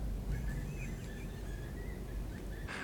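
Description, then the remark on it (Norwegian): Faint, thin high-pitched squeaks of a suffering mouse inside a wall repeat irregularly, sounding muffled, over a steady low rumbling background. “Det pip, pip, pip, pip, pip, pip. Det er en mus som lider.”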